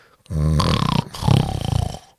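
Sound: voice imitating snoring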